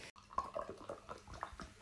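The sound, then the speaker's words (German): A kettle boiling over: irregular bubbling and spitting bursts of water over a steady hiss, fairly loud, with no voices. “Und der Kessel ist übergekocht.”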